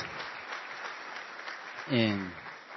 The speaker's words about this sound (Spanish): Bueno, aquí hay una señora, ¿cómo es su nombre? Eh, bueno, un aplauso para esta señora, primera vez, Iglesia Betel, gloria a Dios.